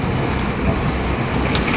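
A 683 series limited express train, the Shirasagi No. 14 from Toyama to Nagoya, runs along with a steady, dense roar and low rumble that stays loud and even throughout, with no voices.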